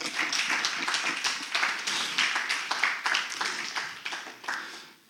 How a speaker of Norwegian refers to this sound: Og så har jeg fått meg ei fantastisk ny kone. Klapp for henne.